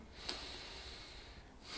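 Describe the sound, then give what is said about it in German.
A patient breathes deeply and audibly during a visceral osteopathic treatment, a long drawn breath with a faint nasal sniff near the start, then another breath beginning at the end. Soft and unhurried, with no talking. “Atme mal.”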